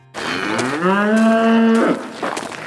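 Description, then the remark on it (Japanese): A single long moo from a Japanese Black wagyu cow in a farm paddock where the cattle graze, rising into a sustained low bellow that holds steady for about a second before tapering off, with faint outdoor background noise and no talking. “放牧されているパドックに近づくといつもの乳牛よりちょっと一回り小さいんですね黒毛和牛が人懐っこい瞳でどんどん近寄ってきてくれました”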